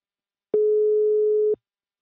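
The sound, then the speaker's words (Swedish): A single steady telephone ringback tone sounds for about one second while placing a call to the company Invacare, a clear, even electronic hum that starts and stops cleanly, heard alone with silence around it. “Nu tar vi en kort paus och ringer upp min samarbetspartner Invacare.”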